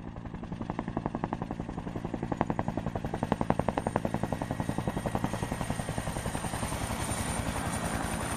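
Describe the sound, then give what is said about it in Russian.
A helicopter's rotor thumps in a steady, rapid rhythm over a deep engine rumble, growing louder as it approaches from not far away, then holding at a strong level. “Невдалеке послышался рокот приближающегося вертолета.”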